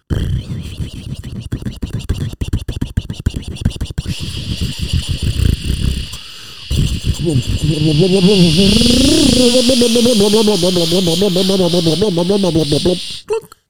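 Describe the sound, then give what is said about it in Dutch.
Someone mimics an electric kettle with their voice: a crackly, hissing rumble for several seconds, a short pause, then a loud wavering whistle-like hiss that rises in pitch before stopping abruptly. “En dat is een waterkoker.”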